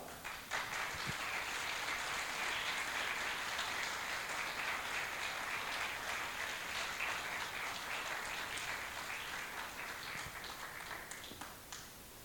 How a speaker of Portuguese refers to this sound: Quantos quer um galardãozinho mequetrefe? Levanta a mão. Ninguém? Amém. Então aplauda o Senhor.